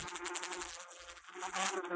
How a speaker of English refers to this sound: That was when the bright green blur thing buzzed out from behind it. I say buzz because it was as fast as a fly. Faster, even.